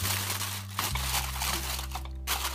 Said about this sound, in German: Wenn das so ist, nehmen wir uns ein Stück Alupapier und bedecken damit das Glas auf dem Teller